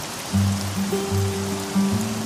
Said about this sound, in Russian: Некуда укрыться от дождя домам Хабаровска.